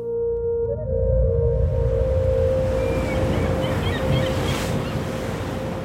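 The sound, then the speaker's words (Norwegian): Continuous rushing wash of open-sea waves, loud, rolling steadily for the whole stretch with a faint steady drone beneath and a few thin high squeaks. No voices. “De måtte være forsiktige for å ikke bli oppdaga på det åpne havet.”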